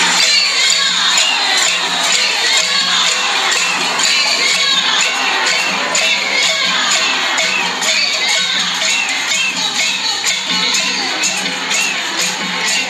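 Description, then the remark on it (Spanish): A dense crowd at a street protest shouts and cheers continuously, many voices overlapping into a loud, steady roar with rhythmic bursts of chanting, recorded on a mobile phone from within the protest. “estuve en la protesta viendo cómo estaba el ambiente, yo quería sentir realmente y ver quiénes eran los que estaban allí caminando”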